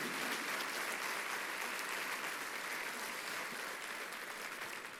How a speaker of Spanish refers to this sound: Denle un aplauso bien fuerte a Jesús.